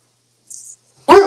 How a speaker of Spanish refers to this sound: Por allá está molestando el perro de, de jugar el perrito.